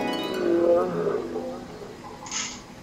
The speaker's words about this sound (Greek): Κάθε φορά που ακούγεται ένα λιοντάρι από μακριά, κοιτάει πίσω και έχει αρχίσει και κινείται λίγο περίεργα.